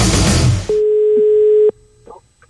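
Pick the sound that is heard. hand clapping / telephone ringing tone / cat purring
telephone ringing tone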